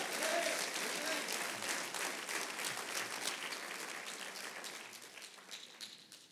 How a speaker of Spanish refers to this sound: Sí, aplauda más fuerte.